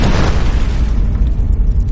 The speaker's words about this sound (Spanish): El Big Bang es la gran explosión, la teoría de la ciencia que explica el origen del universo.